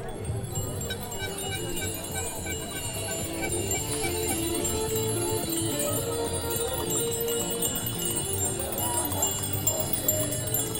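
Many bicycle bells ring at once in a dense, steady chorus of bright metallic trills that overlap for about ten seconds, with a low murmur of people underneath: a bell concert by a gathering of cyclists at the start of a city cycling event.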